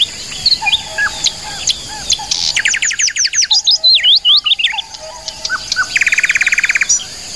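Several birds chirp and twitter nonstop, with rapid trills and sharp whistled notes overlapping in a lively outdoor chorus, clear, with no one speaking.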